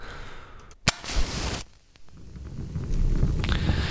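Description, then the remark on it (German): A sharp match strike and a brief rushing flare as a fire is lit in a fireplace, then a steady crackle with scattered pops and snaps building. No one speaks. “Ach, das ist doch was Feines, so das Geräusch eines Feuers, die Wärme, die das Ganze abstrahlt und auch das Licht, was so vorher gibt, ist schon was Herrliches, oder?”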